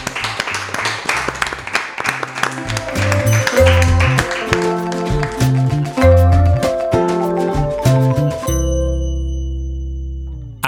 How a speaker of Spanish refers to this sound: Nos despedimos con un adiós y un aplauso, que siempre se queda muy bien.